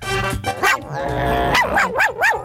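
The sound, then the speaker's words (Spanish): A voice imitates a dog: a short yelp, a drawn-out whine, then a quick run of three or four rising and falling barks, loud and clear with no other talk. “¿sabes cómo le hace el perro?”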